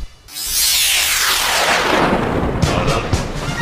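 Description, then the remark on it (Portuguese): Firecrackers go off: a loud, sustained rushing burst that sweeps downward, then a few sharp crackling pops near the end. The sound is dense, with no talking. “Tem meio bom de bombinhas aqui, o ó.”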